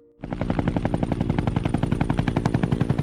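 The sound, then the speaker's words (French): A helicopter rotor chops steadily in fast, even, loud pulses, starting abruptly and running on for a few seconds with no voices. “Au collège, j'y vais en hélico.”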